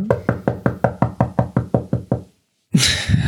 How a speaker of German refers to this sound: Der Applaus. Klopft. Ach so. Applaus auf den Tisch geklopfter Applaus.